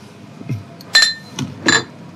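Two bright glass clinks ring out about a second apart, each with a short shimmering tone, between soft low knocks as glassware is shifted.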